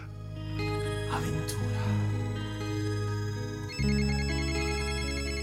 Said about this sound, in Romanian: Nu la noi sună telefonul. Nicăieri nu sună telefonul.